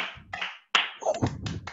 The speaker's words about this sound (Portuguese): Uma salva de palmas.